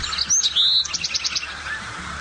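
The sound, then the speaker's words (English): A Bewick's wren sings a short, bright phrase: a few high whistled notes, then a quick run of repeated trilled notes, over a steady low background hum. “Well, that's definitely different. That's the Bewick, so yeah.”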